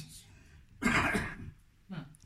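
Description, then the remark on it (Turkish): A loud cough bursts out and rasps for about half a second, followed moments later by a shorter, softer second cough. “İşte öksürür.”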